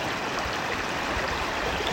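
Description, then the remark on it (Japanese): A mountain stream rushes steadily on a hot day, recorded from within the river, a dense, continuous wash of flowing water with no pauses and no voices. “このちょっとこの川の鈴なんか流れる音でだけでも”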